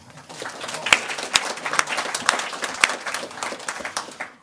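A burst of audience applause, many hands clapping in a dense, steady patter with a few sharper claps standing out, lasting several seconds before tapering off at the end.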